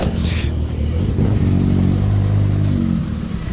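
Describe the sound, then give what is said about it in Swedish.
A rally car engine revs hard and steadily, its low growl rising in pitch with a rough, rattling edge that stays loud throughout, with no voices over it. The car won the 2013 Midnattssolsrallyt with Jimmy Olsson driving. “Den här bilen har väl vunnit Midnattssolsrallyt?”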